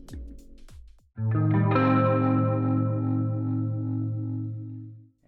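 A few quick drum hits, then a rock band crashes in with a loud, sustained, effects-heavy electric guitar chord that rings out and gradually fades, like a rock cover of a soul song.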